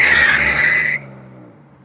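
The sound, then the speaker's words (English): A car speeds off at night with tyres spinning and smoking, a loud high screech lasting about a second before cutting out, leaving a low engine rumble that fades away. “he heard a yeah from Timothy, and the car sped off”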